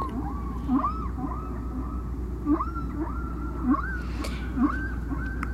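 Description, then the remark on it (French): A humpback whale sings a repeating series of rising, moaning calls over a low, constant undersea rumble, each phrase a few seconds apart and sounding fairly distant; track 4, the distant whale, on side A of the record by Penn and McVeigh. “Peut-être on va écouter un autre chant hein, du disque de Penn et McVeigh, La plage 4 la baleine distante de la face A, comme on disait à l'époque, du disque.”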